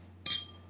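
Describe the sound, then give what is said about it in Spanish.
A single bright clink of glasses touching in a toast, sharp and ringing briefly before fading over a faint low hum, with no voices. “Ahí está, salud. Salud.”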